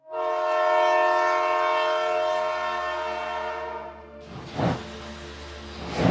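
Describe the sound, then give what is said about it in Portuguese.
A loud, sustained train horn blares for about four seconds, then gives way to the rumbling, rhythmic clatter of a train pulling away. No one speaks. “O trem da vida começa sua jornada e o seu coração está disparado.”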